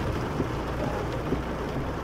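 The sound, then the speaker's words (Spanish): Steady, dense rain hisses evenly throughout, a constant wash of noise with a low rumble underneath and no voices. “Además, no soy tan mala gente para dejar a un anciano solo en esta lluvia, ¿sabe?”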